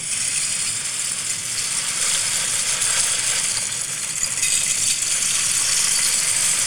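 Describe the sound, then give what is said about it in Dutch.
A steady, dense clatter of small plastic Lego pieces tumbling and rattling continuously in a waterfall-like cascade, sustained at an even level for several seconds with no voices. “Een soort van Lego ASMR dit.”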